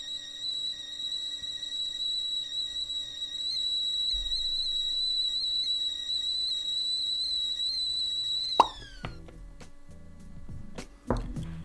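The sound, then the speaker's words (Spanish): A tea kettle whistles steadily at full boil as the tea is ready, with a loud, shrill, sustained high tone for about eight seconds, then the whistle abruptly drops and fades, followed by a couple of clattering knocks. “Ahí estaba la tetera a tope, el té está listo”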